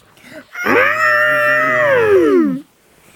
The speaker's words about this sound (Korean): 할머니, 저것 봐요. 큰 코끼리도 있어요. 코끼리 소리 한번 내줘.